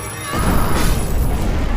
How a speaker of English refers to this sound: the explosion rocked the house as the tower was torn asunder, sending fiery ash and debris cascading down.